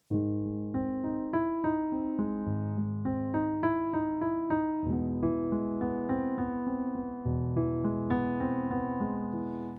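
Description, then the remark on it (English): Arpeggiated major chords shift from A major to F major, a move by a major third, notes entering one after another in a steady flow and ringing together over a sustained low bass, loud, with a flat sixth at the top of the arpeggio and no voices. “It's basically a normal, familiar triad, but it moves funny from A major to F major.”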